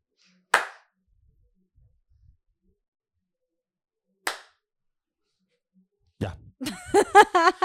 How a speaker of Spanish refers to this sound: No, es porque ese, aplauso lo uso para sincronizar el audio y el ah, video.